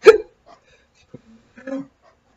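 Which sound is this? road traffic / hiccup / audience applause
hiccup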